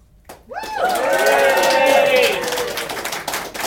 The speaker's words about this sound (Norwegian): Så vi er altså nå live fra Deichman Romsås, og det er Grorud litteraturfestival som vi deler av. Kan dere lage litt bråk, publikum, så vi hører dere?